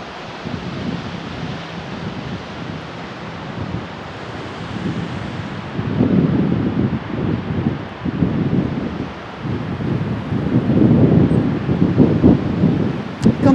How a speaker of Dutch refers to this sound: Het is wel ook een soort ja, het leuke is als je het geluid van die snelweg nou niet meteen al uh, bestempelt als vervelend. Dan is het de zee eigenlijk. Vind je niet?